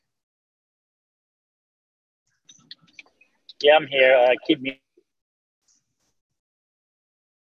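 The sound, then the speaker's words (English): Call audio cutting in and out: a few faint clicks, then a short, clipped burst of a man's speech that stops abruptly, with long stretches of dead silence before and after. “We can't. You're really breaking up.”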